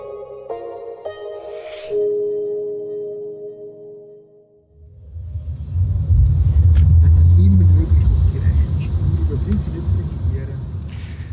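A driving-school car with a driving instructor drives along the road, its low engine and road rumble swelling in after a few seconds and then holding steady, following a brief sustained tonal sound at the start.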